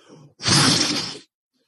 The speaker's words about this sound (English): there is a sound of of ice breaking tearing ground shattering there is the noise of collapsing tunnel crashes this this horrific alien like noise busting through